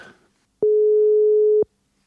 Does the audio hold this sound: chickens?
no